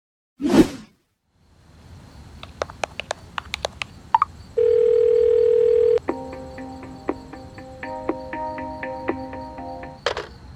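A brief whoosh, then a run of dialing clicks and a steady tone, followed by several seconds of warbling telephone ringing that ends with a sharp click as the line picks up. No voices.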